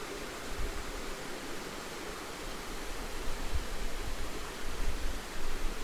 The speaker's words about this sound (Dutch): En luister maar even naar het water, hoe het ook eh, een echo heeft tegen de oude muren van het waterrad.